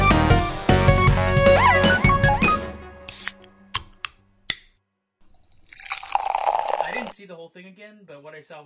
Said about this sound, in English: Oh, Crack open a cold box of wine or pour something cold on ice because it's the Binge Watchers Podcast.